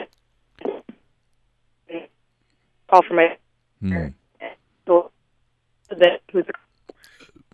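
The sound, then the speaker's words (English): Speech on a phone call comes through in short, choppy bursts, abruptly dropping into silence between fragments as the connection keeps cutting out. “It sounds um, like sounds like you're cutting out uh, again.”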